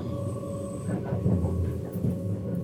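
A tram heading toward Eindhoven rolls along its rails with a steady rumble and faint humming tones, the wheels' rhythm swelling slightly midway with no voices present.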